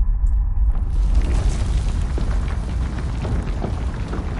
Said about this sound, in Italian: capita la situazione, prese l'unica decisione possibile con grande forza d'animo, urlò a tutti di reggersi, fece oscillare le sue spade in aria, incanalò tutta la sua energia e creò un vortice che culminò con una potente esplosione.